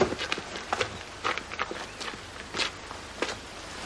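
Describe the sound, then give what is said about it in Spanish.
Irregular footsteps and shuffling on dirt or gravel by a river, with scattered crunchy impacts and occasional hoof-like clops, as a priest and a barber get down from their horses. No one speaks. “El cura y el barbero bajan de sus caballos.”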